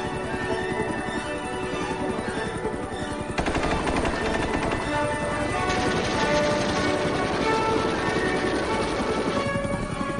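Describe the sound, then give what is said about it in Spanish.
Rapid, rhythmic thumping of the rotors of US Army First Cavalry Division helicopters mobilized by the hundreds in a large offensive operation fills the scene, loud, with the chopping growing denser and heavier partway through as more engine noise joins in. “Estas operaciones movilizan a cientos de helicópteros, los cuales se convirtieron en los caballos modernos de la primera división de caballería.”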